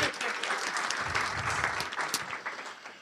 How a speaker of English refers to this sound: Everyone loves Slack. Round of applause for Slack.